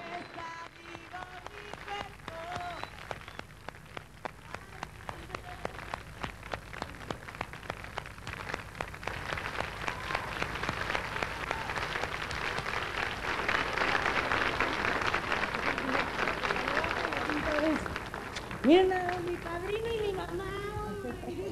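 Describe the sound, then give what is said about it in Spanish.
Crowd applause from a TV programme recording that starts thin and builds into a dense, steady clatter of clapping, swelling loudest near the end before fading, with voices heard briefly at the start and right after. “Los aplausos estuvieron bien bonitos”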